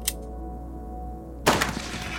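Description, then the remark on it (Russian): A single loud gunshot bursts out after a moment of low, steady hum as a person shoots themselves in a locked room in the evening, its sharp crack trailing into a brief rumbling decay. A faint click comes just before. No one speaks. “Вечером того же дня, заперев дверь комнаты, ты стреляешь в себя.”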